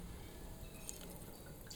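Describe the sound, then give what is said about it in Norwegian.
A 2020 Tempranillo Blanco wine is poured steadily into a glass, a soft continuous trickle with faint splashes and small bright drips near the end, fairly quiet. “Og her heller jeg over i glasset til unge”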